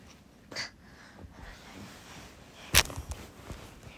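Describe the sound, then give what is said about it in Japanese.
Someone scratches at an itchy insect bite on the skin in a few short, raspy bursts, with one louder scrape near the end and a couple of lighter ones following. “ボリボリ聞こえた。”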